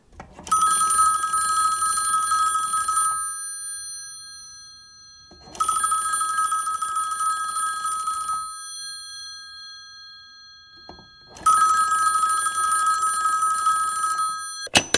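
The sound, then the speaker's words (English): A telephone rings three times during an outgoing phone call, in a steady pattern, each ring a bright, trilling bell burst lasting about three seconds with quiet pauses between. Loud, no voices. “Let me just make a phone call.”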